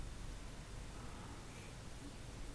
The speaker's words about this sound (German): Ihr hört das Meer rauschen und ihr seht, wie die Wellen ganz automatisch an den Strand hinausspülen und genauso automatisch wieder zurück ins Meer sich zurückziehen